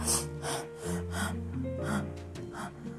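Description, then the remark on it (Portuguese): A voice imitates an alligator snorting and panting, with quick, rhythmic heavy breaths repeating over sustained musical tones playing underneath. “De repente, sem dar tempo de mais alguém chegar, o jacaré bufou e começou a ofegar.”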